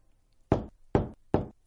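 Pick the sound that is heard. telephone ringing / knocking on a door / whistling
knocking on a door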